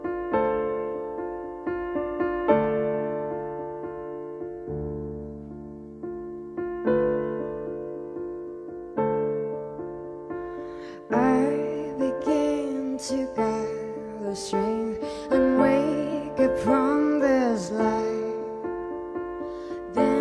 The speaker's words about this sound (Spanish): Y van a ser dos temas los que ahora nos va a acercar con su voz y su teclado cuando estés preparada.